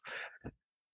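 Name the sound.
sneeze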